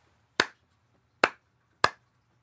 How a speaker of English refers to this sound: which is clapping the rhythm of pants, pants, pants.